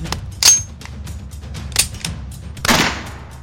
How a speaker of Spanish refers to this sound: El disparo consigue que Nathan deje de golpear a Tim, que está en el suelo hecho trizas.